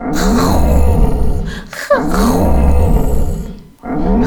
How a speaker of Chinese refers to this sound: 于是他们出发，一起去寻找。当他们靠近危险山峰时，听见了一阵低吼。